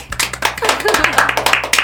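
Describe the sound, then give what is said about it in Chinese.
A quick burst of hand clapping to welcome a guest, sharp claps coming in a fast, fairly even rhythm for about two seconds, with faint voices mixed in underneath. “那今天我们就是邀请到他，拍手拍起来。”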